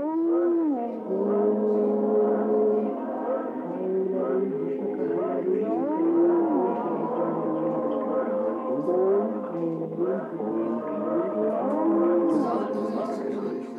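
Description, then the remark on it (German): A constant house mantra of strung-together mystical syllables plays nonstop on tape from small loudspeakers spread throughout a house, low voices holding long, droning tones that slowly swell and dip in pitch, forming an even, unbroken hum throughout. “Im Hintergrund, sanft und ein bisschen einlullend, ein konstanter Ton ein Mantrateppich. Das Hausmantra, Mantra, erklärte Gerhard Finger, das laufe ja Band nonstop seit eh und je aus kleinen Lautsprechern, die überall im Haus verteilt sind.”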